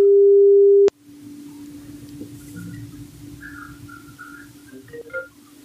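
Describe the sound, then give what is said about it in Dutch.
A telephone ringing tone sounds while calling: one loud, steady mid-pitched beep lasting about a second, cut off by a click, followed by a quiet low line hiss with faint chirps. “En nou, laten we even bellen”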